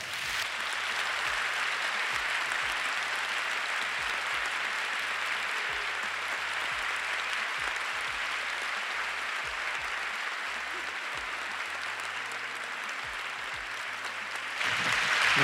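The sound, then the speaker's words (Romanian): Sustained audience applause as two guests enter together, a dense steady wash of clapping that holds at an even, fairly loud level for the whole stretch, swelling slightly at the very end. “De data asta eu o să stau aici, totul e modular la noi, și aș vrea să le dați aplauze pentru că ei vor intra împreună.”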